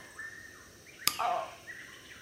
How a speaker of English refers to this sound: Could you feel that? I'm sorry about slapping you, but I'm trying to figure out if you're this unconscious woman.